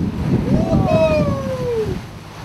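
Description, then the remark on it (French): A boat engine drones steadily, mixed with wind and water noise, while a brief high gliding tone sweeps downward through the middle of the rumble. “nous attendons la tempête. Et nous sommes au moteur.”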